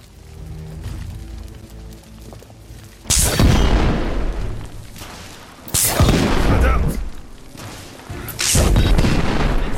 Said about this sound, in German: Von einer erhöhten Position aus feuerte ein Rebell mit einem Raketenwerfer auf Galahad. Nur im letzten Moment konnte er dem Beschuss ausweichen.